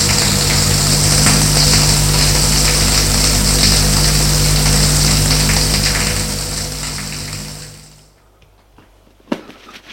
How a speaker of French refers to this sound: Et va dans la salle de bain pour prendre une douche.